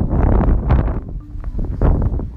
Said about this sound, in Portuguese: Estou num, num lugar onde o vento tá demais, tá um sol forte e uma ventania bem gostosa.